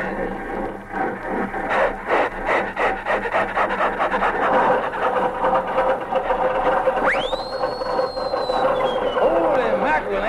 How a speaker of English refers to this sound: I want to hear that Stutz Bearcat engine, boy.